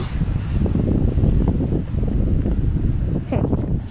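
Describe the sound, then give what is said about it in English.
Wind buffets the microphone outdoors during a rainy walk with a steady, loud, low rumbling roar that gusts unevenly and never lets up for the whole stretch. “it's getting windy again now.”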